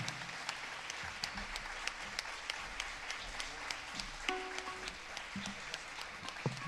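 Sustained audience applause for a singer joining the host: a dense wash of many hands clapping steadily for several seconds without letting up, with a brief tonal sound surfacing partway through.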